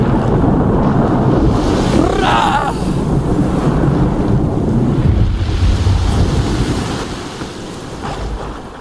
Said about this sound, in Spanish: ¡Ah! Aquí estaba la tormenta. Aquí estaba. Aquí estaba.